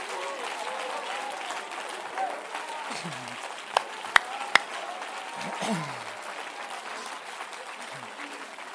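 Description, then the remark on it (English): An audience applauds God, celebrating the resurrection of Jesus Christ, in a dense, steady wash of clapping lasting the whole stretch, with scattered cheering voices mixed in and a few sharp, louder claps popping out midway. “Why don't you applaud God in His great power?”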